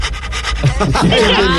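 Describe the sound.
One of two dogs, Chorizo and Viruta, dogs of the zona veredal rather than street dogs, pants in quick, rhythmic breathy bursts for about half a second, then a person's voice starts talking over the fading panting.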